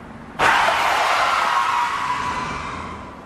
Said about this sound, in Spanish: un auto detuvo su marcha de manera sorpresiva justo a mi lado.